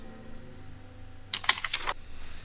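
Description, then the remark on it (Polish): A quick cluster of crisp computer keyboard clicks, five or six taps in under a second, fairly loud against a quiet background with no one speaking; clicking to open an email message. “To jest bardzo dziwna sytuacja, ta, ta wiadomość, ale trzęsącym się palcem klikam.”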